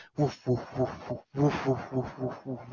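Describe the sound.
A voice imitates slow-motion helicopter blades from a video game's first title screen, with a steady series of deep, rhythmic voiced pulses, about four per second, fairly loud, briefly pausing midway before resuming.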